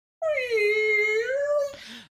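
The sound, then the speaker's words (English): A voice imitates the Millennium Falcon hyperdrive engaging to go into hyperspace: one sustained, droning hum that dips and slowly rises in pitch for over a second, then breaks off into a short, breathy whoosh. “That is the Millennium Falcon hyperdrive sound.”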